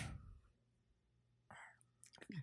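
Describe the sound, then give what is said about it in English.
Soft, wet lapping and smacking noises from a dog licking, in a few short bursts, quiet, separated by near-silence, with a faint whisper-like voice near the end. “You can hear our dog in the background. He likes to lick everything while we're trying to do something um, productive.”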